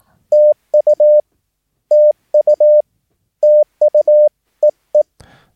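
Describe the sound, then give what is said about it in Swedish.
A steady, clear Morse code tone beeps out TU, the abbreviation for Thank You, in crisp long and short pulses, repeated three times with pauses between, ending with two quick short beeps and a soft click. “Thank You Dittit till exempel då.”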